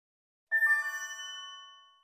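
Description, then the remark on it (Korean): A bright mobile phone notification chime from a new group chat in the late afternoon, a quick cluster of three tinkling notes that ring out and fade over about a second and a half, heard alone. “그날 늦은 오후 휴대폰이 갑자기 시끄러워졌다. 새로운 단톡방이었다.”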